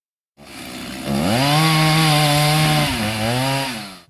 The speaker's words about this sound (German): Was hat es wohl zu bedeuten, wenn unser Abgeordneter Volker Bauer die Kettensäge zur Hand nimmt? Ganz genau. Der Bayerische Landtag braucht einen Weihnachtsbaum. Ganz wichtig dabei, eine frisch geschärfte Kette und mehr als ein Dutzend Helfer.